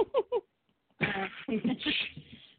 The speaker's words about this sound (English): well, on that note, I have to cough.